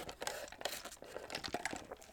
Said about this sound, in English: I'm going to sip my drinky drink.